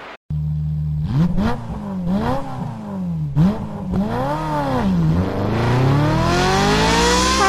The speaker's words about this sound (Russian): Правда, это мотоцикл тарахтит. А какой? Не знаю. То-то же. А это Иж-планета.